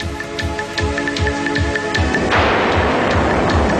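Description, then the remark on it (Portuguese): A droning airplane engine with rapid, regular targeting-lock beeps as the plane is put in crosshairs, then an abrupt roar as it explodes into a sustained, noisy rumble; the opening sound of an advertisement. Loud, no voices. “O primeiro som que vão ouvir neste anúncio é o de um avião que é posto numa mira e explode.”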